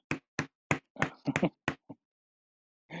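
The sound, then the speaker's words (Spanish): A short burst of hand clapping, about eight sharp, crisp claps in an uneven rhythm, quickening in the middle before trailing off, followed by a brief pause and a soft rustle. “Un aplauso para Gaisca.”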